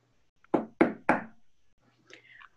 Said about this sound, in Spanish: En eso, tocan a la puerta. Era la cucaracha.